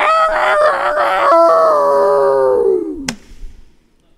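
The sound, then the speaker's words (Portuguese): A person imitates a neighbor's rooster crowing at four in the morning with one loud, drawn-out, wavering call that holds for a few seconds, then slides downward and fades, followed by a brief sharp click. “Mata aquele galo do vizinho que quatro horas da manhã.”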